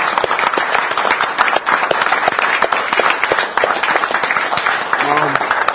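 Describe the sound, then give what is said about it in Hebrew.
A crowd claps steadily for several seconds, dense overlapping hand claps filling the space at a fairly loud level, with a brief voice surfacing near the end. “אז קודם כל, אני רוצה מחיאות כפיים גדולות לכל מה שהולך עכשיו בארץ, לחיבור בינינו, ללידה של קבוצות חדשות, מציאות חדשה.”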